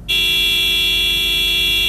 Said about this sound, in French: Chauffeur, klaxonne encore. Plus fort.